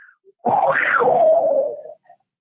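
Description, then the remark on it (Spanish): A singer imitates a tiger's roar for her friends in Mexico: one loud, drawn-out growling cry lasting about a second and a half, rising in pitch before sliding down and fading, with no talking around it. “con amor para todo, el rugido de ….”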